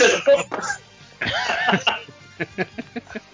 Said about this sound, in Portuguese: Dá aquela, dá aquela escarradinha.